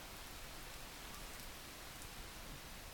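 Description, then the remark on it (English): Steady rain falls without pause, a dense, even hiss of countless drops spread across the whole sound, fairly soft, with no voices and no thunder. “If the farm is dry or the forest animals are in pain, the Nefelibatas come in their clouds and make their clouds rain.”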